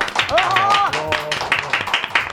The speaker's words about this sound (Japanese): 美味しいと思った方拍手をお願いします。